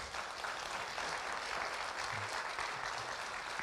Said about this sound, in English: Thank you, friends. Can we give a round of applause, please, for Westminster?